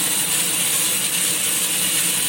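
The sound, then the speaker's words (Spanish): A coffee roaster discharges its freshly roasted beans during a live roasting session, a dense, steady clattering rush of beans pouring out with a mechanical rattle, loud, continuing unbroken with no voices. “aquí estamos haciendo la descarga y en un momento van a escuchar un poquitito de ruido del enfriador, pero nada, estamos en vivo como quien dice.”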